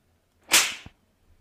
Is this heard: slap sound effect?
yes